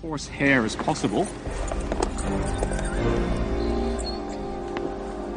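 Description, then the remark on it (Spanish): A horse whinnies loudly at the start, then its hooves clip-clop in a steady rhythm as it is ridden along with a saddle blanket, during a six-hour ride. “Montamos el caballo durante seis horas para descubrir si la carne se volvía comestible o simplemente repugnante.”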